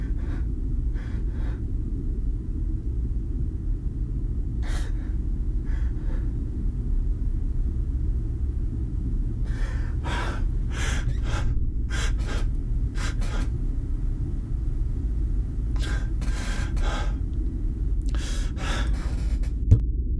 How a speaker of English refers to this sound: I'm sorry. I'm sorry. It's just gotten to me a little bit. I had a cry